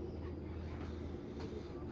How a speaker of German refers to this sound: Ich habe hier gerade gar keine Ruhe. Der Zug ist wieder brechend voll bei mir. Wir machen so einen Lärm hier. Das ist Katastrophe. Hat wieder Verspätung der Zug.